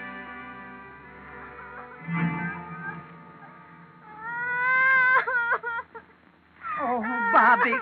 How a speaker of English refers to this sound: She hasn't stopped crying long enough.